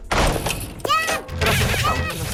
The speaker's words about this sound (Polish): Ok, co do drzwi, jest to obiekt, którego nie można przejść, więc jest taki dźwięk, kiedy walniemy do drzwi.